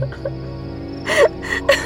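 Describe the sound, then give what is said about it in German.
A voice imitates Gretel from Hansel and Gretel whimpering and sobbing in the dark, with a few short, breathy, shaky sobs in quick succession, fairly loud, with no words spoken. “Als sie erwachten, war es dunkel und Gretel begann zu weinen.”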